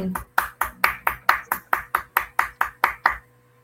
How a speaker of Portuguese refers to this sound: Nossos aplausos também.